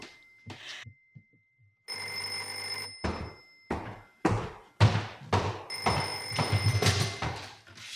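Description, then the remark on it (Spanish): A telephone bell rings loudly in two long bursts, its bright metallic trill mixed with heavy thumps and knocks, like hurried movement, as a woman runs to answer it, with no voices. “El teléfono detiene la discusión y ella corre a atenderlo.”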